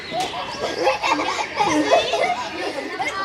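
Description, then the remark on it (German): A lively crowd of schoolchildren arriving at school shortly before 9 o'clock chatters and calls out at once, high voices overlapping continuously with occasional laughter, at moderate loudness without any single clear speaker. “Das passiert jetzt dann bald, weil es ist bald 9 Uhr. Genau. Okay, jetzt kommt die Schule an.”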